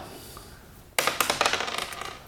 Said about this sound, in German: Wo ist der Würfel? Da das ist der Würfel. Ich leg mal. Eine Eins!